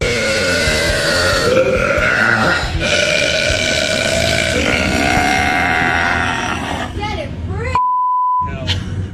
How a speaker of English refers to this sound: I just broke the world record for women's loudest burp. Well, I've kind of always known that I was able to burp loud.